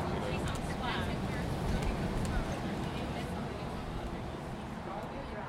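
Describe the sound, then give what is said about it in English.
A steady, dense roar of traffic from a busy highway in California, with a continuous low rumble and hiss that never lets up, fairly loud throughout. “so, just to help paint the scene, imagine the highway behind me that's making a horrific noise with in front of me a little green haven, a sunny hillside in California.”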